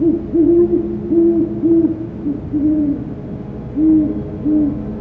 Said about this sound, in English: an area I know great horned owls frequent, hoping to finally get recordings of this species in person